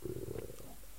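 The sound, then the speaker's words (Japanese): A low, gurgling stomach rumble, churning steadily for about half a second with a tonal growl before fading into quiet. “お腹がめちゃくちゃ鳴ってますね”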